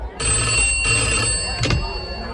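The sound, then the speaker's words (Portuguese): A telephone bell rings at a police station in one sustained, bright trill lasting a couple of seconds, loud, with a brief clatter near the end. “O delegado Acerola está na delegacia quando de repente o telefone toca.”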